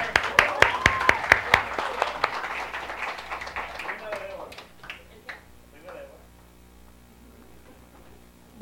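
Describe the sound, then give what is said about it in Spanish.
An audience breaks into applause for a speaker being called up to the front, with dense clapping at first that thins into scattered claps and fades out over a low hum, while indistinct voices murmur. “Un aplauso”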